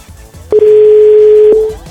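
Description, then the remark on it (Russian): A single steady telephone ringback tone sounds for just over a second, a loud, clear, unbroken electronic hum heard alone with no voices around it. “Ну, ну настолько я мужчина, чтобы она понимала, что у нее звонит телефон.”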